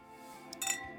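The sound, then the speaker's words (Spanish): Wine glasses clink together in a toast: a light tap, then a brighter ringing chime that fades quickly. Fairly quiet, with no talking. “Sigue brindando con nosotros.”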